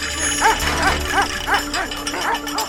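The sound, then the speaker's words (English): A large livestock guardian dog protecting a flock of sheep in the Swiss Alps barks aggressively at passing hikers in a quick, steady series of about eight sharp barks, over a constant outdoor background hiss. “An excursion in the Alps, suddenly interrupted by a loose and apparently aggressive dog.”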